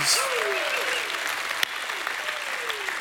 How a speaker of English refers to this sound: For other foundation can no man lay than that is laid, which is Jesus Christ. Give Jesus Christ a hand clap and a shout of praise.